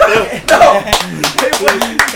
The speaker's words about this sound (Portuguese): Palmas aqui